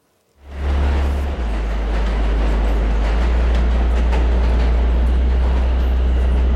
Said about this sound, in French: Il était là, debout, perdu dans la foule des heures de pointe sur le quai du métro le bruit des rames qui circulaient à toute allure sous les tunnels et qui s'arrêtaient dans un hurlement de frein à la station